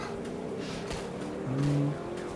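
car accelerating

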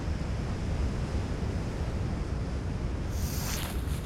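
distant waterfall rushing

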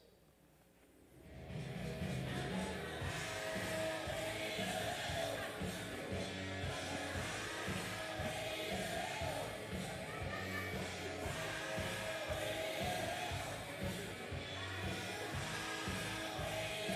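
hard rock song playing

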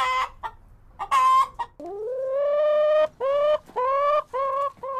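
chicken clucking

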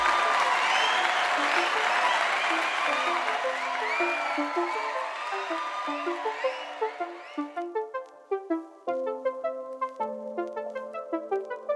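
audience applause

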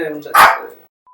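small dogs barking

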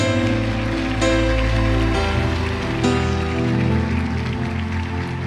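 audience applause

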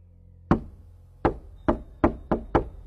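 knocking on a door

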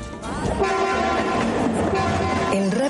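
train passing with horn

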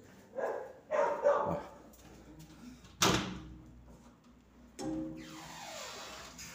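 dogs barking and whimpering

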